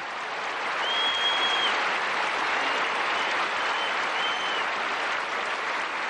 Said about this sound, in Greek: Και τι αισθανόταν όταν τη χειροκροτούσαν. Ρίγο έλεγε. Είναι η καλύτερη στιγμή του ηθοποιού. Όταν παίζει είσαι απομονωμένο σε έναν άλλο κόσμο. Το χειροκρότημα σε ξαναφέρνει στην πραγματικότητα. Στιγμή συγκλονιστική.